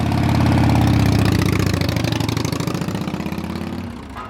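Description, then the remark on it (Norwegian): A motorcycle engine rumbles, revving with a rising and falling pitch, then settling into a steady, pulsing idle that gradually fades. No one speaks. The motorcycle belongs to the Outlaws motorcycle club in Oslo, 1995, and is ridden without a helmet. “Det er en gruppe med motorsykkelinteresserte individer som ønsker å kjøre på landeveien i frihet og fred og fordragelighet.”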